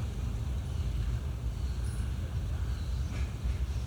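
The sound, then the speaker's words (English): A steady, deep rumble of a train rolling across a bridge, continuous, with a faint metallic hiss above it and no voices. “So, to listen to the bird, to that train that's going over that bridge, to listen to the movement of the wind in the leaves.”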